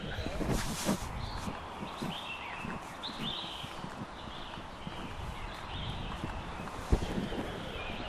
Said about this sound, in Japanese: この鳥の鳴き声さえずりが聞こえますね